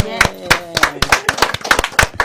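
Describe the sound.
Steady, rhythmic hand clapping, sharp and fairly loud, about eight claps in a couple of seconds, with voices murmuring faintly underneath.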